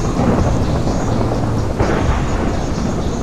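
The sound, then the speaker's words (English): In a video game storm with a tornado, heavy rain pours steadily while deep thunder rumbles underneath, a loud, dense storm roar filling the whole stretch with no voices present. “It's like so rainy there.”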